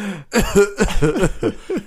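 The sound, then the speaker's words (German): A rapid string of five or six short, voiced coughs and throat-clearing bursts, fairly loud, with no talking in between, like someone mimicking a coughing fit. “wirklich ich huste da, husten.”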